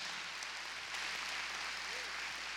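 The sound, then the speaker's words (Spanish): An audience claps together in praise to God, a dense steady wash of many hands that swells slightly partway through and keeps going without a break for a couple of seconds. “Démosle palmas a ese Dios tan grande que tenemos.”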